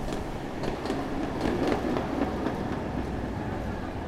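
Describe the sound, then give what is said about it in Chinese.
A tram rolls along a street in Milan, a steady low rumble of wheels on rails broken by irregular metallic clacks and rattles, with no one talking. “行色匆忙的商务人士，还有三五成群逛街的青年，只有有轨电车的声音能让我识别出这是哪里。”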